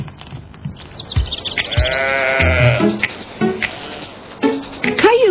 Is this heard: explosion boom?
no